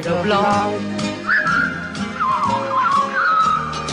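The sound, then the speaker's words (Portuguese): Someone tries to whistle a tune, a thin wavering pitch sliding up and down for a few seconds over a busy, murmuring background, moderately loud. “Eu não consigo assobiar.”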